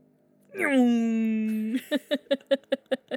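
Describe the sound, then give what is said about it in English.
A voice imitates a motorcycle leaving: a steady, buzzing engine drone that gives way to a quick run of rhythmic putt-putt bursts, fairly loud, with no other sounds around it. “Did you hear her motorcycle? That was me. That was me leaving.”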